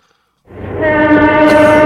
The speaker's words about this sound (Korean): 이 정도예요. 귀 옆으로 기차가 지나가는 느낌.